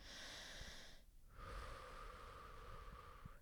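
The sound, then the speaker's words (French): A person takes a deep breath: an airy inhale lasting about a second, a brief pause, then a longer, steady exhale drawn out slowly until the end. The breathing is hushed, with no talking. “Besoin de vous relaxer avant le début de l'entretien, alors prenez une profonde respiration.”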